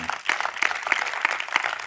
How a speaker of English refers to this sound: If you sense anything that's trying to steal, kill, or destroy the goodness of God around your life, come on, you ought to clap your hands to the Lord right there, just one time.